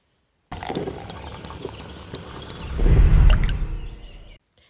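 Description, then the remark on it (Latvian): Iced coffee is poured steadily into a cup, a continuous splashing that swells louder and fuller near the end before stopping abruptly. “Ledus kafija.”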